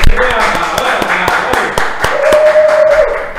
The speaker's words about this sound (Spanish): Bien, señores, y el aplauso. Más así.